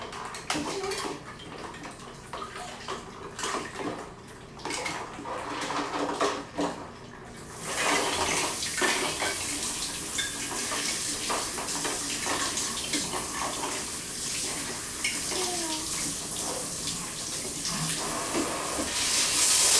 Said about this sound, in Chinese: 把这冲干净，这个椅子冲干净要要吊起来，挂起来。